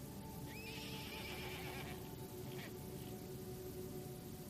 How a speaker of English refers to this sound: In the distance, you hear a horse.